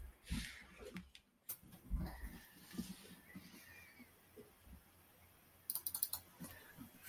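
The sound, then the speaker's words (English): Quiet typing on a computer keyboard: soft irregular key clicks tapping along, with a quicker cluster of keystrokes near the end. No one speaks. “I'm totally not typing in names here.”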